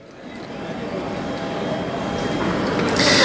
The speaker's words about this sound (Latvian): Es dzirdu, laikam, te tur vēl vilciena stācijas trokšņa fonā.